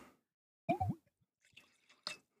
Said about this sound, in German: Und so habe ich uns eine, äh, eine, Flasche Silvana hier mitgebracht. Ganz passend zum, zum Namen Silvana Valley. Da schenke ich uns jetzt gerade mal so ein Schlückchen ein. So, gib mal dein Glas rüber.